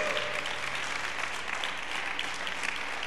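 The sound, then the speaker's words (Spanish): An audience applauds their Lord steadily, a dense wash of many hands clapping at once, sustained and evenly loud throughout with no voices rising above it. “Alguien puede aplaudir a su Señor, alguien puede celebrar y comprender eso.”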